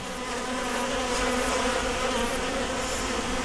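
A dense, steady hum of many irritated, squabbling honeybees buzzing together in a hive, loud and unbroken with a slightly agitated, wavering drone and no voices.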